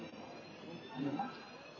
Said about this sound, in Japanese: 今、フランクフルト空港ですね